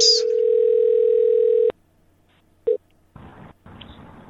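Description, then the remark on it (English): A steady telephone dial tone hums for under two seconds as a call is placed back, then cuts off; a single short dialing beep follows, then bursts of line static. No one speaks. “Here we're calling back.”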